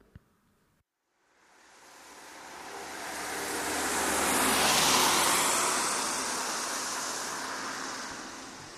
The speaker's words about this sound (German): Äh, ihr könnt es wahrscheinlich hören, aber ich stehe gerade an der Bushaltestelle ein paar Straßen von meiner Wohnung äh, hier in Berlin entfernt, um gleich gleich zu den Samtpfoten Neukölln zu fahren.